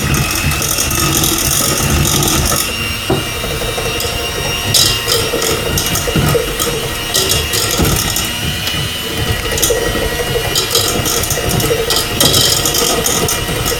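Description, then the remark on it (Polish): A hand blender with a standard whisk attachment runs steadily for the whole stretch while mixing a sugar mixture, a loud, dense motor whir mixed with rattling, clattering mechanical noise and occasional brief surges in intensity. “Zakładamy e, typowe widełki do mieszania na koniec naszego blendera i możemy powoli przystąpić do miksowania.”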